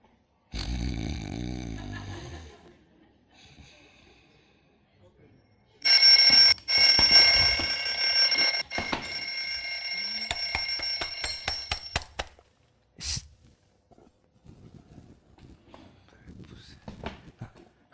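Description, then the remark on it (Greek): A loud alarm clock rings in a harsh metallic burst for several seconds, then cuts off; a rustling thump follows, and softer movement and shuffling sounds fill the quieter stretch afterward. “Έχω βαρεθεί με αυτό το ξυπνητήρι. Όσο θυμάμαι τον εαυτό μου βαράει.”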